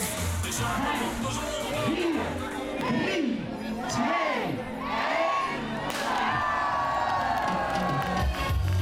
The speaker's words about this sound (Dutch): Eh, nou, je gaat met z'n allen naar de start toe. En dan gaan ze heel vaak af, heel hard aftellen.